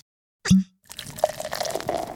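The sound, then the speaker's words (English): Rum is poured into a glass: a short hollow knock, a brief pause, then a steady splashing, gurgling pour that keeps running, with no voices. “We're about to have a tot of rum.”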